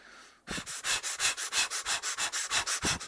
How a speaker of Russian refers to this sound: Я сажусь под дерево, э, там, не знаю, под тенечек какой-нибудь, сажусь в позу лотоса и начинаю дышать. Дышу я интенсивно 35 раз. Три подхода по 35 раз. Ну, сейчас объясню. Вот так вот дышу.